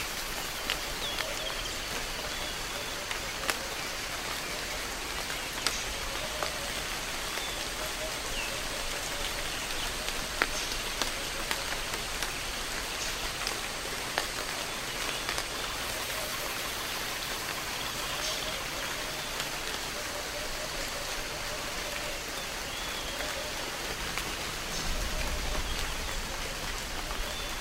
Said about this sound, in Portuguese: Uma névoa domina tudo à nossa volta. Ouvimos a chuva cair sobre os galhos do nosso baobá protetor.